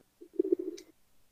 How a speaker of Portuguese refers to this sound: É que parece o barulhinho é de pombo. Ah, não, é aqui, pô, é aqui, mano. É aqui.